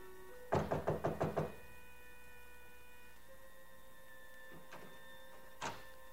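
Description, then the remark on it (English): A quick series of about six firm, crisp knocks on a hotel suite door, followed by quiet room tone and a couple of faint, isolated knocks a few seconds later. No one speaks. “I finally went down to Helen's suite to pick her up. She didn't answer, so I tried again.”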